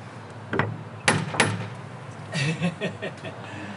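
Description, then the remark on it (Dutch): Three sharp metallic raps from a door knocker, the first lighter and the last two loud and close together, followed by people talking quietly. “Het is ook een, een klopper.”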